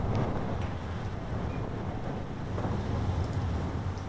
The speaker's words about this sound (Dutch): Het waait vannacht. In de stad lijkt de wind van om de hoek te komen. Hier hoor je de heuvels, de bergen, de verte.